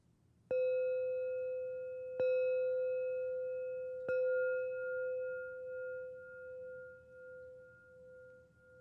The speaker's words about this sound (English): I'm going to ring the bell again and keep your eyes closed until you can't hear it any longer, and then open your eyes.